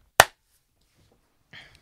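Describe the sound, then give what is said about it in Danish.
One sharp, loud hand clap given to mark the start of a recording rings out and fades quickly, followed by quiet and then a brief, faint rustle of noise near the end. “Og et klap, og så er vi fandme i gang.”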